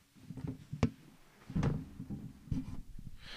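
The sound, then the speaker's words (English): A door being shut, with a sharp wooden clack followed by a couple of duller thuds and knocks as it settles. Nobody speaks. “One second, let me shut the door.”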